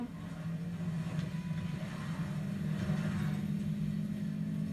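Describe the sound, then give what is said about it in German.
A car engine hums steadily at moderate volume throughout, a low continuous drone with a slight rise and fall, as someone drives around in a car. No one speaks. “Hier fährt noch einer mit Auto rum.”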